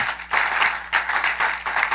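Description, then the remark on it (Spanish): An audience bursts into sustained applause to the Lord, dense overlapping claps forming a steady, loud wash of sound with small surges throughout, and no one speaking over it. “Y después que todos esos hombres se fueron y se largaron y se apartaron, Dios todavía está aquí respaldando esta obra es un aplauso al Señor.”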